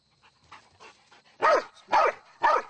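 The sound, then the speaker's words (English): A dog lets out three loud, sharp barks in quick, even succession, preceded by a few softer whining yips, barking on the command "search and bark" during training, with no talking. “Search and bark.”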